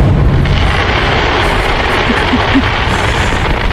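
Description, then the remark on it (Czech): Fireworks explode in a dense, continuous barrage, loud booms and crackling bursts overlapping into a sustained roar with no pauses; the fireworks are set off beneath the windows around a house, in a display that lasted eight hours. “Počkej, já jsem tady stáhla zvuk ohňostroje, jak zhruba to měli pod oknama.”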